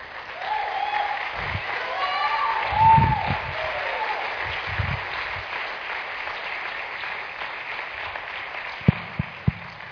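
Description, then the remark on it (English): An audience applauds steadily as three young people come up to speak, a dense wash of clapping with a few faint voices and cheers mixed in, ending with a couple of sharp, louder claps near the close. “So, would you guys give these three a round of applause as they come up?”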